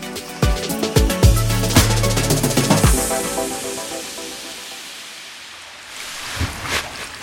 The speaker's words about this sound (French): Bon, eh ben mon chéri, je te quitte parce que mon bain coule, hein